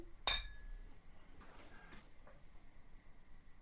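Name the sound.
glasses clinking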